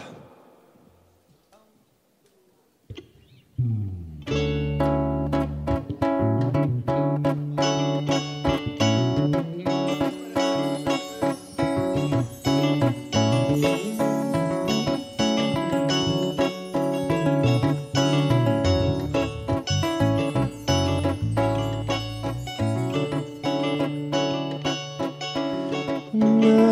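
After a few near-silent seconds, a full band launches into a lively beach samba instrumental intro, played live on the Tabajara stage, with a busy, walking bass line and bright chords, playing loud and steady without any singing.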